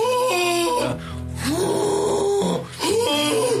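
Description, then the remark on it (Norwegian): A voice imitates a nasal, wailing call, sustained and loud, rising and falling in long drawn-out tones with a brief break between two cries. “Slapp åpen gane har et rop.”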